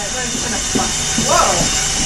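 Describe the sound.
An electric kitchen mixer runs with a steady, even whir and hiss throughout, while a few soft voices murmur briefly over the motor noise.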